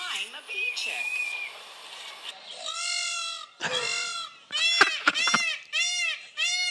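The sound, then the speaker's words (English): Loud, nasal peacock calls ring out in a rapid series of harsh, wailing, strident honks after a brief stretch of quieter background noise. “I, I have I have some peacock sounds.”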